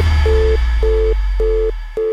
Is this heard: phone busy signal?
yes